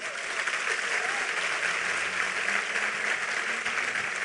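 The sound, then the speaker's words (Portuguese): An audience at a church service applauds in the name of Jesus, clapping steadily for several seconds, a dense, sustained wash of clapping from many hands at an even, fairly loud level with no pauses. “Aplauda ele em nome de Jesus.”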